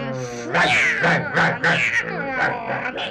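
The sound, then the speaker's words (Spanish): An angry cat, coming out of a sack together with a dog, yowls in a series of loud, strained wails that rise and bend in pitch, coming in about five quick bursts with short gaps between them. “Entonces salieron rabiando el perro y el gato.”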